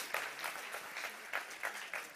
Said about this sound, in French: Est-ce qu'on peut applaudir vraiment bien fort Ils ont relevé le défi ensemble.